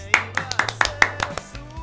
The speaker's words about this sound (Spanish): ¿Lo aplaudimos? Sí.